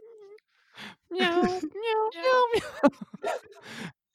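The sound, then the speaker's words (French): A string of loud cat meowing calls with rising and falling pitch, several sung in quick succession like a melody over reversed piano, with short pauses between them, from a horror film. “Un film d'horreur qu'au milieu de son film, il part une toune en miaulant avec du piano qu'un chat il fait en faisant du reverse piano.”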